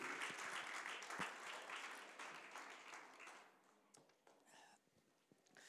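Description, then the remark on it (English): A seated church audience claps together as a hand clap of praise to the Lord, a dense, sustained wave of applause that gradually thins and fades toward the end, with scattered individual claps lingering. “Could you give the Lord a hand clap of praise as you're seated?”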